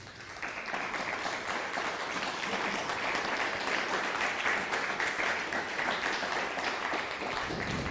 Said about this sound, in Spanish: Amén. Dele un fuerte aplauso.